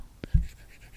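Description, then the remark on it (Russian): A stylus writing on a Paperlike matte screen protector on an iPad: a light tap and a soft thump, then faint, papery scratching strokes like writing on paper, quiet, with no talking. “И очень многие блогеры рекламировали именно Paperlike тем, то, что когда ты пишешь на нем, есть такой звук, как будто ты пишешь на бумаге.”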